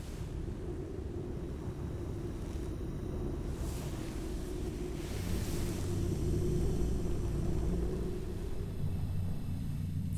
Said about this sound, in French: Et toujours cette pluie. Soudain, Zimzam comprend. C'est de la musique, s'écrie-t-il. C'est de la musique de, de train. Et il y a aussi de la musique de pluie et de la musique de pas sur l'herbe.